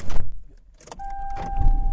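A car engine turns over and settles into a low rumble as the driver sets off to get lunch, with a steady electronic dashboard chime ringing over it and a brief jangle of keys at the start. No one speaks.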